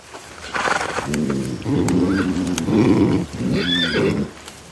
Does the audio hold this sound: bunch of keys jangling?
no